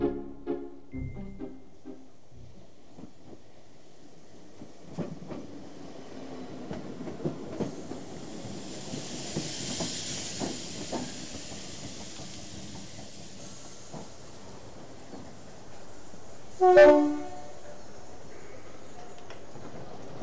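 A train rumbles and clatters through a station with a steady hiss of steam above it, then a brief, loud whistle-like blast sounds near the end. No one speaks.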